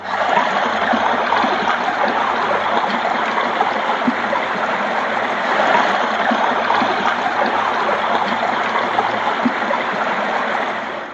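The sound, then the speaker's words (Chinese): Rushing water of a deep, fast-flowing river pours steadily for the whole stretch, a dense, unbroken hiss and churn with fine splashing texture and a low rumble underneath, loud and even throughout with no voices. “河水很深，流的也很急。”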